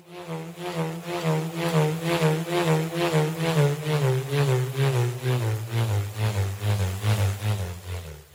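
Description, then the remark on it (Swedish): A bullroarer, a wooden slat or blade whirled on a string, produces a deep, pulsing humming, whining sound that swells and fades in a steady rhythm, its low drone slowly sliding downward in pitch. No voices are heard. “En sorts träplatta eller träklinga på ett snöre som man snurrar. Mm, så man får ett brummande, vinande läte Precis.”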